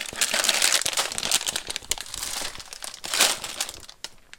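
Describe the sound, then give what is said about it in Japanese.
Crinkly plastic packaging of a new pack of spicy peperoncino spaghetti being crumpled and torn open, a busy, bright rustling with sharp crackles throughout and a louder burst near the end, with no talking. “あれ、これの、旨辛ペペロンチーノの空いてるやつなかった空いてるやつないっぽいんで新しいの開けましょう。”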